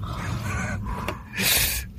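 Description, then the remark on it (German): A loud, breathy gasp rushes in, a sharp inhaled burst of air after a brief quieter breath, with no talking. “Ja, Atmen.”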